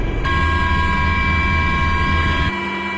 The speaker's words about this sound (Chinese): 下午一点，直十九、直二零等多型直升机依次起飞升空，奔赴各自目标空域，展开直升机野外场地起降训练。